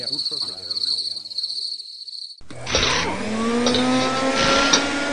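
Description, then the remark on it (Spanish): Steady, shrill cricket chirping fills the first half under a speaking voice, then cuts abruptly to a loud roaring car engine with squealing tires. “Otras parecen una jaula de grillos.”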